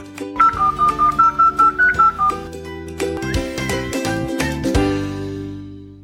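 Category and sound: signal or alarm, telephone dialing tones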